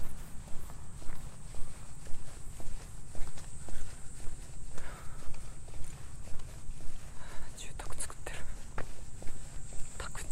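Steady footsteps walk at an even pace over a hard surface outdoors at night in Tokyo, each step a crisp tap against a low, constant rumble of background city noise, with no one speaking.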